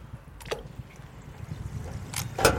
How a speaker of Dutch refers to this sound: Het geluid van een verse oliebol. Wat een kleine.